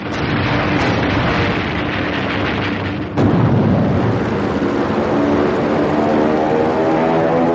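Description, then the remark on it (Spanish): A loud, continuous aircraft engine drone fills the scene, with a sudden heavy blast around the midpoint swelling the rumble, as Japanese bombers drop eight bombs on the battleship Arizona. “Los bombarderos nipones descargan ocho bombas sobre el acorazado Arizona.”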